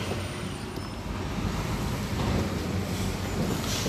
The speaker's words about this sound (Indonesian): sorry ada suara mobil saya lagi di jalan